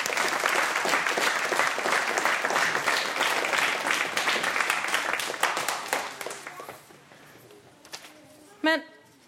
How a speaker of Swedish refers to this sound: Tack så jättemycket. En applåd.